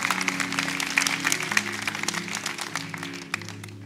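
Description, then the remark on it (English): An audience applauds, giving God a big hand clap on Mother's Day, with steady, dense clapping for a few seconds, while sustained low keyboard or organ tones hum underneath. “Could you give God a big hand clap?”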